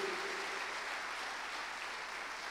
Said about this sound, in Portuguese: Quem pode aplaudir ao Senhor e dizer glória a Deus por isso, querido? Aleluia! Aleluia!